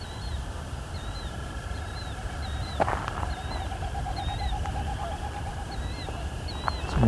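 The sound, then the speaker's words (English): A killdeer calls repeatedly, with about seven shrill, rising notes at a steady pace of roughly one per second. A low continuous background hum and a rapid pulsing series of lower notes run beneath it. “It's a killdeer.”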